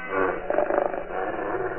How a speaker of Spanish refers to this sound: Los lobos vuelven a gruñir amenazantes.